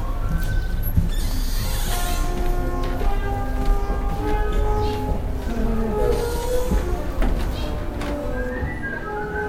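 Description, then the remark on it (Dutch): Several musical instruments, played by people at a conservatory in a large old villa, sound at once, overlapping sustained notes at different pitches in a dense, steady wash of sound from all sides, with no one speaking. “Je hoort aan alle kanten, eh, van alle kanten mensen spelen op instrumenten.”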